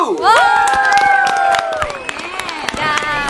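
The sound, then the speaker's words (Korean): A small group in a broadcast studio cheers a new album announcement with high, rising whoops and sustained shouts over steady clapping that carries on throughout, bright and lively like a studio audience. “새 앨범이 나왔습니다. 박수!”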